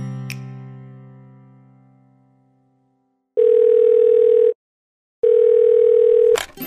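A phone call's ringing tone: two long, steady, mid-pitched beeps separated by a short pause, preceded by a single bright tone that slowly fades away. No one speaks.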